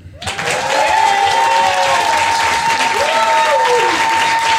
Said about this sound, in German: euer Applaus für den kompletten Abend jetzt nochmal in laut